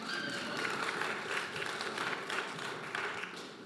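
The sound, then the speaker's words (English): An audience breaks into steady applause, a dense, even wash of many hands clapping at once that holds at a fairly loud level for several seconds without letting up. “We can clap at that.”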